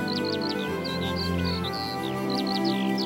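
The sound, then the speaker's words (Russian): Birds chirp in quick, repeated high tweets scattered throughout, clear over a steady, droning background of sustained tones, as they flutter over mountains bathed in yellow sunlight. “Над залитыми желтым солнечным светом горами порхают птицы.”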